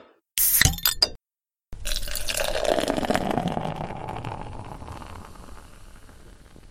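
A few sharp glass clinks ring out, then after a brief pause a new drink is poured steadily into a glass, the gurgling splash gradually settling as it fills.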